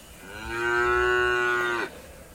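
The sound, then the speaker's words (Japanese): A single long, loud cow moo, played to greet people joining a live stream, holding a steady drawn-out tone for over a second before cutting off, with no one talking. “はい、来ていただいた方はね、こうやってちょっと牛の鳴き声で、出迎えさせていただいております。”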